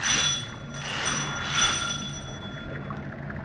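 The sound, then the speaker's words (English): A steady mechanical drone of submarine engines running astern at half power, with a low rumbling hum and faint high whining tones, holding at an even, moderate level throughout with no voices. “All engines back half. All engines back half, sir.”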